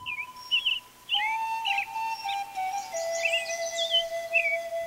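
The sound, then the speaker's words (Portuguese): A small bird that has flown into a monastery choir in the early morning sings a sweet, melodious run of bright chirps and trills, some notes sliding and repeating, heard clearly over a faint steady background tone with no voices. “A visita começa a chilrear, num canto tão doce e melodioso que logo o monge perdeu de vista os profundos pensamentos em que mergulhara e quedou-se a ouvir a música.”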